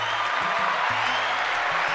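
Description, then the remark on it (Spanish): A steady wash of applause, many hands clapping densely and evenly for the whole stretch, with a faint low tonal hum running underneath. “aplauso a los muchachos.”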